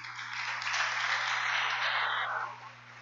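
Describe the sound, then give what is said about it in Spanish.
An audience applauding the Lord, a dense, steady wash of many hands clapping that swells quickly, holds for a couple of seconds, then tapers off near the end. “Y aplauda al Señor la iglesia.”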